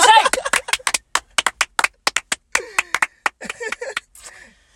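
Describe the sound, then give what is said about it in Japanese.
A short burst of voice gives way to a long run of sharp, crisp hand claps, roughly twenty in a slightly uneven rhythm, gradually thinning out and quieting toward the end. “いつもより拍手長めやったな。”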